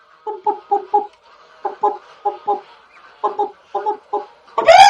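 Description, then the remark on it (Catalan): Hens cluck in short, evenly spaced bursts of three or four notes as they cross a plank over a river one by one, pausing between groups, then one lets out a louder, rising squawk at the end. No one speaks. “I una a una, les gallines van començar a passar.”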